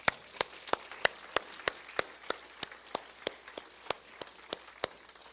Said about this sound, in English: give me a clap offering.